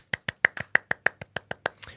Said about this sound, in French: Et bravo. Voilà. Un petit applaudissement, s'il vous plaît, chez vous.